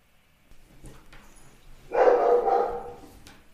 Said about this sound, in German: Hier, der Hund wurde gerade rausgeschickt, das hat man vielleicht gehört auf der Aufnahme.